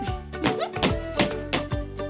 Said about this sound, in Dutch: Stampen met mijn voeten.